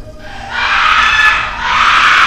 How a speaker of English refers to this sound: From out of the darkness, I heard a woman scream unlike anything I'd ever heard, sending a chill up my spine.